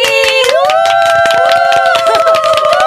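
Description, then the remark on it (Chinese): An audience breaks into steady applause, dense rapid clapping lasting about three seconds, with sustained high-pitched cheering or whooping voices ringing over it throughout, welcoming four guest members of the worship team a band. “那我们把热烈的掌声给他们。”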